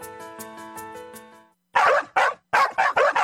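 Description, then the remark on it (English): A steady, pulsing tonal hum gives way to a dog barking loudly and close by, about six sharp barks in quick, uneven succession. “You love your dog.”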